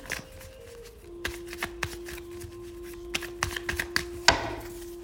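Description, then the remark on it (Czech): Tarot cards being shuffled during a relationship tarot reading, a series of crisp snapping riffles and soft slaps at irregular intervals over a steady low hum, no one speaking. “Já už se dívám na vaše fotky, míchám u toho karty a my se spolu podíváme, co nám Tarot poví o vás dvou.”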